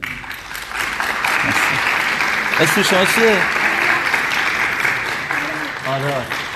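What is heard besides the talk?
audience applause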